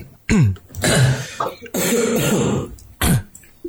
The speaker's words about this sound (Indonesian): kita orang setia dan hmm. batuk ya. Oh. jadi mana apa tuh? jadi kebetulan kita orangnya setia dan sering batuk aja.